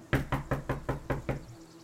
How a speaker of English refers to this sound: You knock on the door? Yeah. You knock.